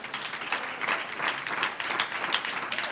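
A church audience applauds the Lord steadily, a dense wash of many clapping hands at an even, sustained level with no voices rising above it.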